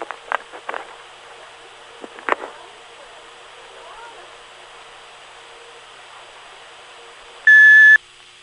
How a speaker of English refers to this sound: If you wish to leave a message, please do so at the sound of the tone. Your call will be returned as soon as possible.